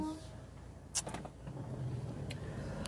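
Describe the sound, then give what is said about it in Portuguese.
Steady low rumble of a car idling or creeping along in heavy traffic, heard from inside, with a couple of brief mechanical clicks and short whooshes cutting through. “Tá mó trânsito aqui.”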